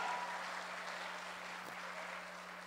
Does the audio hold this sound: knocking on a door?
no